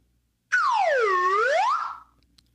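A single loud whistle blown on its own as an isolated drop for a soundboard, its tone swooping down and then climbing back up over about a second and a half, bright with overtones, ending in a brief fading tail.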